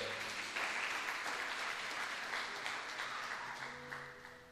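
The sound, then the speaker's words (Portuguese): An audience applauds God in a dense, steady wash of clapping that stays strong for several seconds, then begins to taper off near the end, with faint voices and a low tone underneath. “Aplauda Ele se você crê.”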